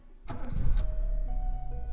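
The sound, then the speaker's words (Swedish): A car engine cranks and catches, a brief starter whine followed by the steady low rumble of the motor idling, as the car pulls away from the roadside, leaving San Sebastian. “Du startar bilmotorn och du sätter igång bilen.”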